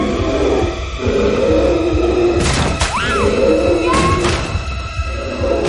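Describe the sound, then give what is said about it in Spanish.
A bear shoves against locked metal bars, setting off loud crashes and clanging with a metallic screech, over a constant rough, rumbling din. No one speaks. “Oso empuja las rejas.”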